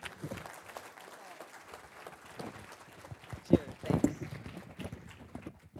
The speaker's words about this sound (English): And I and I think that they they I just want a round of applause for these people because they really really put a lot into this, man.